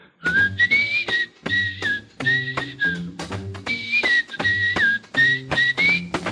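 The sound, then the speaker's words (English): A musician whistles a bouncy jingle melody in clear, sustained phrases, backed by a lively band playing a steady rhythmic accompaniment underneath. “How about whistling along with him?”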